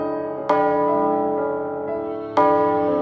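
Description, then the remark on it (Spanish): A large bell in a hollow cave chamber is struck twice, about two seconds apart, each loud clang ringing out with a rich, sustained hum that barely fades before the next strike. No voices are present. “El sonido de la campana era intenso en aquel lugar.”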